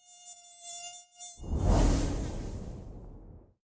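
A thin, high-pitched mosquito whine hums steadily for a second or so, then a loud rushing burst of noise takes over and gradually fades away.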